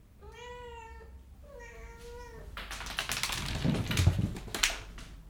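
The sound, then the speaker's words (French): A female cat meows twice, each call a long drawn-out wail, followed by a few seconds of loud scratchy rustling and clattering noise. “Mais tu me fais mal le chat.”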